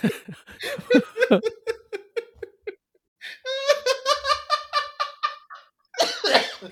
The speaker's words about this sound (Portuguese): Eita! Mas é uma velhice, tosse, deve estar tá se peidando também.